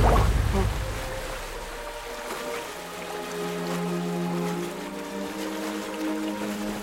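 Rough sea water surges and splashes in a steady, fairly loud wash, with a low sustained tone rising over it partway through.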